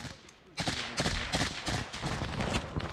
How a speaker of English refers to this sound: In the pre-dawn light, a cacophony of military firepower fills the air. Incoming explosions, outgoing fire.